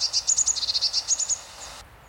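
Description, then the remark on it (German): A blue tit calling: a quick, even run of about a dozen thin, high-pitched notes that stops abruptly after a second and a half, leaving a faint hiss. “Das ist der Ruf, den wir eben im Hintergrund gehört haben. Der Ruf der Blaumeise.”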